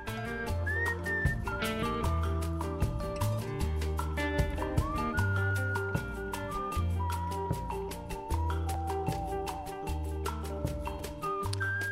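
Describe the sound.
A woman whistles a sliding, wavering song melody at the end of a song, over a steady rhythmic musical accompaniment with a regular beat and deep bass, continuing throughout without any talking.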